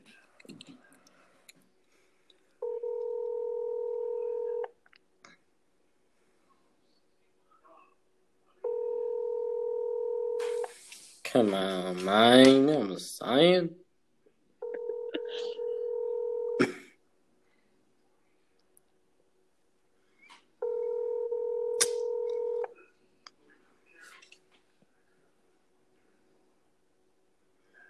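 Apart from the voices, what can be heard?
telephone call ringing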